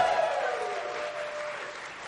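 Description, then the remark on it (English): A live audience claps and cheers for Story Break in a sustained burst of applause, a dense wash of hand claps with a few whoops rising early, then settling into steady clapping. “How about let's hear it for our buddy Story Break?”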